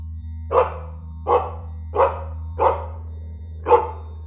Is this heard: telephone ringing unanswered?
no